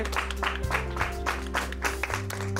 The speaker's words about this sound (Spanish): Aplauso fuerte.